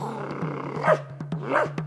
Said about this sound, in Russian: Хозяин спустил с цепей всех своих собак! Они растерзают вас, их шаки кувшиноголовые, молчите, они уже волнуются.